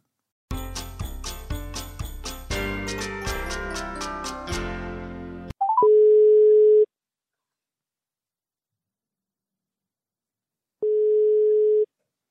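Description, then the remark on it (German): A short tinkling musical jingle plays, then a steady telephone ringback tone of a phone interview call sounds twice, each about a second long, separated by a long silent pause. No one speaks. “Wir werden ein Telefonat mit der Zwargruppe Fra Feldmark Rothausen Altstadt führen.”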